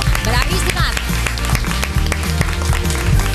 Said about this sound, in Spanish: Bueno, mira qué publicazo. Un aplauso al público.